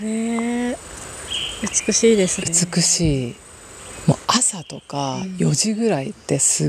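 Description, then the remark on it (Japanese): Birds sing steadily in a forest, their high chirping running continuously in the background while two people talk over it. “この鳥たちの BGM 最高ですね。”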